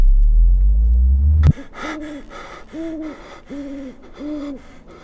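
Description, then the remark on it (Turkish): An owl hoots four times in a steady, evenly spaced series, each call a short wavering tone, after a loud low rumble cuts off abruptly at the start. “Bir baykuş sesiyle ürperdi batar.”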